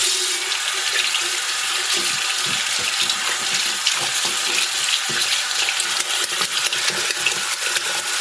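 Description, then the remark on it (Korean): In summer, after coming home from outside, a person splashes cool water onto their arms under a running tap: a steady, bright hiss of flowing water broken by irregular soft splashes and slaps, continuous for several seconds with no voices. “외출하고 들어와서 팔에 물끼얹는 소리라는데요.”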